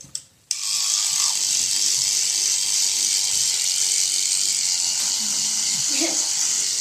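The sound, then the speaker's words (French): An electric toothbrush switches on abruptly after a brief pause and buzzes steadily while a person brushes their teeth, with faint muffled sounds near the end. “Et il faut surtout mouiller la brosse à dents avant de se laver les dents, sinon ça n'est pas possible.”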